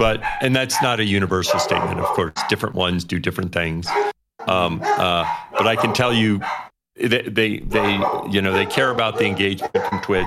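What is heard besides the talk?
dogs barking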